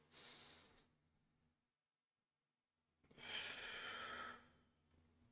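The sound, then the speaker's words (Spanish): A slow, deep breath drawn in during a breathing recapitulation exercise, then a pause of silence and a long, airy exhale, loud and breathy with no talking. “Entonces, si tú al momento de hacer el ejercicio de recapitulación de la respiración y al momento de estar respirando así,”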